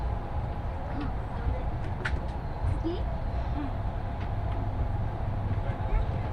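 Steady, low rumble inside a Nishi-Kyushu Shinkansen train cabin, the Kamome No. 36 bound for Hakata, running from Nagasaki toward Saga; a constant drone with a few faint, brief tones and murmurs drifting over it.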